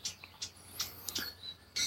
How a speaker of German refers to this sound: Da sitze ich übrigens gerade davor, hier in der Pfalz, so an der Grenze von der Pfalz zum Saarland. Deswegen piepen hier auch ziemlich viele Vögel.